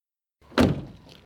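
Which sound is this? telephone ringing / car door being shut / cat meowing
car door being shut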